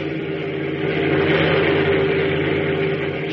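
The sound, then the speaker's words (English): A car drives past on a road in the dark, with a steady, droning engine hum that swells a little around the middle and stays fairly loud throughout, with no voices. “notice the strange shape of that car”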